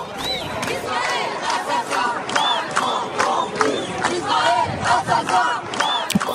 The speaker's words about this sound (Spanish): escuchamos eh, gritos en ellas de Israel asesino, Macron cómplice